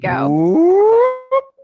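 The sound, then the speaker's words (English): A single voice imitates a siren to announce a special guest, with one loud wail that climbs steadily in pitch for about a second, followed by a short vocal blip. “I, I, think it's quite clear that that is my siren noise to announce that we are having a special guest drop in.”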